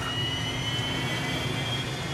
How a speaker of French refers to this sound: Les moteurs Viper se mettent en route en soulevant un nuage de poussière épaisse.